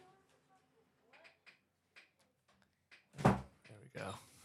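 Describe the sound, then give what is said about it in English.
A door in a home studio shuts with a loud, solid thud, followed by a softer bump and rustling. Faint voices murmur in the background beforehand. “Close the door.”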